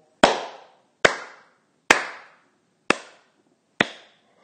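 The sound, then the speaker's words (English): A single person's slow clap: five sharp claps spaced almost a second apart, each ringing briefly before fading, with no talking. “Will you join me in a slow clap?”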